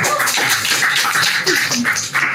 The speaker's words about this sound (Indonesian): Boleh tepuk tangan untuk sponsor.